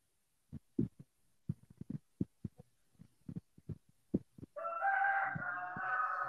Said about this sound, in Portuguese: o galo! o galo é nosso convidado especial. O galo é nosso convidado especial.